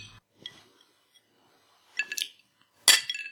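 Glasses of alcohol clink together in a toast, two or three bright, ringing chinks, the last one loudest, with a softer tap early on and quiet moments between.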